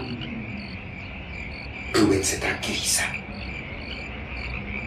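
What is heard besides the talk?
cricket chirping at night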